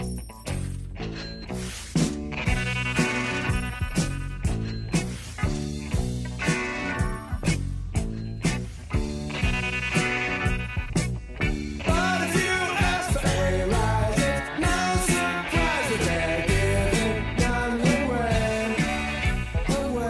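A rock band plays a dense full-band passage, with a steady driving beat, sustained guitar and keyboard chords, and bright cymbal shimmer, loud and continuous throughout.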